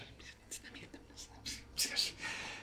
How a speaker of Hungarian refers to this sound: Azt hallod, hogy tömeg elkezd susogni.